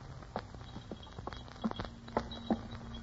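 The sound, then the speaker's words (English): Uneven, unsteady footsteps of a person stumbling down damp stone stairs into catacombs, a string of about ten hard, echoing taps with irregular spacing, over a low steady hum and no talking. “His steps were unsteady, and the bells upon his cap jingled even more as he stumbled down the damp stairs”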